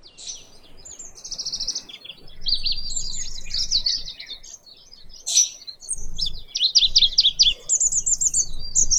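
Oriental dollarbird calls: harsh, raspy chattering notes repeated in quick bursts, fairly loud and high-pitched, over a low background rumble, with no one speaking.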